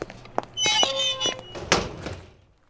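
A door opens with a brief high squeak from its hinges, framed by a few solid thunks and a louder bump as it shuts, then things quiet down.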